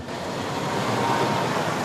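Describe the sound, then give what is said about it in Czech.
Two buses carrying steelworks trade unionists pull away in Třinec early in the morning, setting off for Prague, with a steady, broad engine rumble and road noise that holds at an even loudness throughout, with no voices. “Ještě schánění posledních účastníků a pak dva autobusy vyrážejí.”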